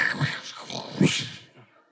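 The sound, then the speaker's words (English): A person vocally imitates the siding being ripped off a pop-out as it moved, after a drawer that opened during the car ride snagged it, making two rough, grinding bursts with a raspy scraping quality, loud, trailing off after about a second and a half. “Look down, one of the drawers had opened in the car ride, and the drawer snagged and ripped the siding off of the off of the uh, pop out there.”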